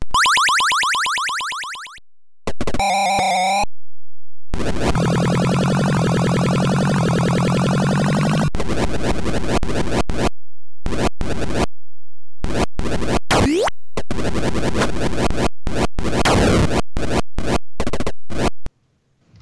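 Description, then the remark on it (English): Chaotic electronic arcade game noises from a 1982 Williams arcade game by John Newcomer, where players control an ostrich or a stork, on 6809-based hardware similar to Defender: bursts of buzzy synthesized tones, warbling sweeps and crackly zaps, chopped by abrupt silences, loud with no voices. “And it sounds like this.”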